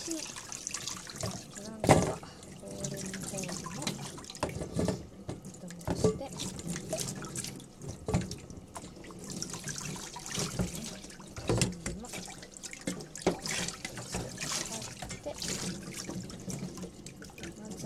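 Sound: water running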